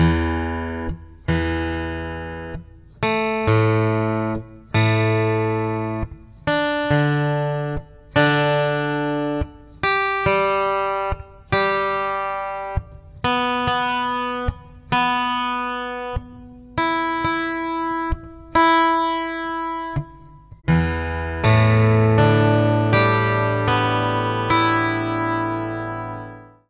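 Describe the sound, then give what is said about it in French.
A twelve-string guitar in standard twelve-string tuning has its strings plucked one by one, about a dozen clear ringing notes at a steady pace, followed by a full strummed chord that sustains to the end; the lower string pairs are tuned an octave apart and the B and high E pairs in unison. “Et voici à quoi ressemble cet accordage.”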